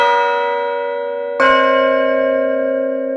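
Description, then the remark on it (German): A newly cast church bell is struck in Gescher to test its musicality, partial tones and inner harmony, its rich harmonic tone ringing on, then struck again about halfway through, the fresh strike layering over the lingering hum. Loud and sustained, with no voices. “Dann die Musikalität, Teiltöne, Innenharmonie, Zusammenspiel.”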